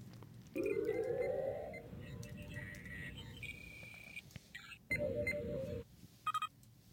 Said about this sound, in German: Natürlich ist das der Sound der Brücke aus The Next Generation